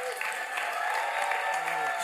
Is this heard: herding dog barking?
no